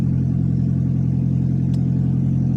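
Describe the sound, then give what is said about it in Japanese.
A Toyota Prius engine roars loudly and steadily after its catalytic converter was stolen, a harsh, unmuffled drone with a deep rumbling low end and rattly texture that fills the whole clip without letting up. “ところがこのコンバーターを盗むとですねこんな音になっちゃいますすごい音です自分の声が聞こえません”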